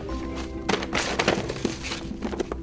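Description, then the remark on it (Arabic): A bookshelf collapses and books scatter across the floor: a burst of loud thuds and clattering knocks over a couple of seconds, with no one speaking. “وإذا رف الكتب الخاص بها قد سقط وتناثرت الكتب على الأرض آه يا لها من فوضى”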